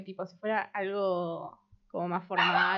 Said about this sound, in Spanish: ese es mi perro